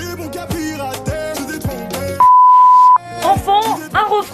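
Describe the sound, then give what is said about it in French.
A steady, loud censor bleep tone lasting nearly a second cuts into an energetic song with singing, which resumes right after; the bleep covers an insult in the music a football club from the Madrid suburbs chose for a video. “Moi, je l'ai hmm. censuré évidemment, euh, voilà, pour vos oreilles.”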